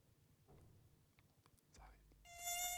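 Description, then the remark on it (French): A mosquito's high, thin whine swells suddenly and loudly right against the microphone near the end, following a few seconds of soft rustling and faint breathy sounds. “Attends, je vais l'avoir celui Il est sur mon micro.”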